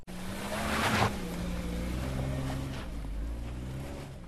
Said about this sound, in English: A sport car is uh, carrying the paragliding equipment uh, to the top